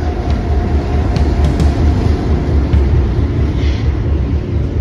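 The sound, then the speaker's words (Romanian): A freight train rumbles past on the rails, a loud, continuous low roar with faint metallic clicks and squeals over it, steady for the whole stretch with no one speaking. “Tocmai trece un tren de marfă.”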